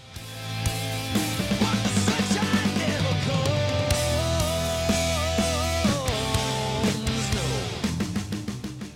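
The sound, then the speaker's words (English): A loud, dense metal song plays alone in its Guitar Hero game version, with heavy distorted guitar chords, a sustained lead guitar line and pounding drums building to rapid, choppy hits at the end. “So here's the Guitar Hero version of that same track.”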